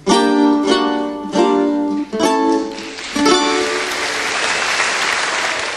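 A stretch of tuneful music with steady chords comes to an end, and a crowd breaks into loud, sustained applause that fills the last few seconds.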